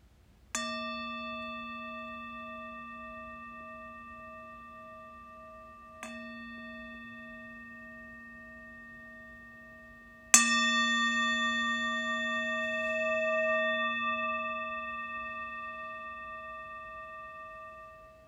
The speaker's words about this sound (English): And I will bring us back together in this virtual Sangha with the sound of a bell.